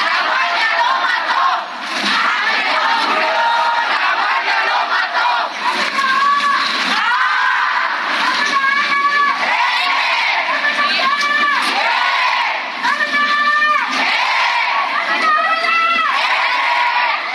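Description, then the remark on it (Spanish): A large crowd of University of Guanajuato students shouts and chants loudly at a morning protest in the streets of the city of Irapuato, voices rising in repeated rhythmic bursts over a constant roar of protest noise throughout. “Es la protesta de estudiantes de la Universidad de Guanajuato esta mañana en calles de la ciudad de Irapuato.”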